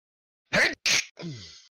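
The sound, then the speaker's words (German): A loud sneeze: two sharp, breathy bursts in quick succession, then a short voiced trailing sound as the breath settles. No talking. “Gesundheit.”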